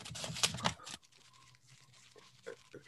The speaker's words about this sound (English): You get up there, and the first thing you say, as soon as you step up there, crumpling your piece of fucking paper